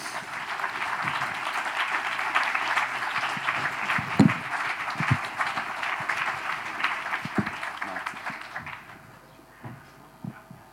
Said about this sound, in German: Schön, dass Sie hier sind. Applaus für Thomas Fischer.